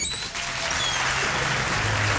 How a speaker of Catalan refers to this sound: Com estan pots comprovar, eh? encara estan aplaudint. Des d'ahir les 10 del matí que no han parat.